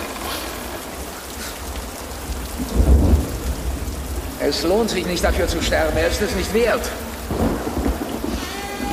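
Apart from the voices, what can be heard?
heavy rain with thunder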